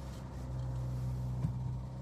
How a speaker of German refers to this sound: Das ist übrigens der Leerlauf. Ich glaube 6000 Umdrehungen im Leerlauf. Finde ich lustig.